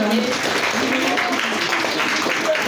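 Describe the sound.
An audience claps steadily for a few seconds, a dense, continuous wash of applause with a few faint voices mixed in.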